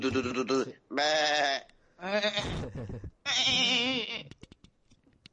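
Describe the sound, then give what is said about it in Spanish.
A goat bleats loudly four times in quick succession, each call a wavering, nasal cry, followed by a few faint clicks as it fades out. “Se nos han vuelto a colar cabras en el estudio.”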